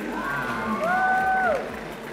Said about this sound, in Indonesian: Tepuk tangan untuk Rakyat Bumi Langit.